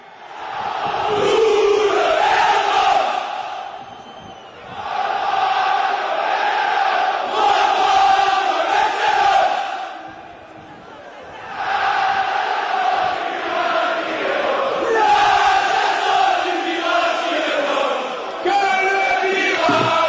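Olympique de Marseille football supporters chant together in a stadium in a loud, sustained roar of many voices, rising and falling in long phrases with brief dips between verses, the massed singing filling the whole stretch.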